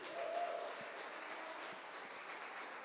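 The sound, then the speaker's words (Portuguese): An audience applauds Jesus with dense, steady clapping that holds at an even level for about three seconds, with no speech over it. “Vamos aplaudir Jesus, gente?”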